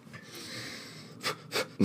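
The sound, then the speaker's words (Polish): Three quick, heavy breaths puff out after a quiet moment, rapid and forceful like someone hyperventilating, with the last one the loudest. “Hyperventilation. Dobrze, mów dalej. Trzy, trzy oddechy.”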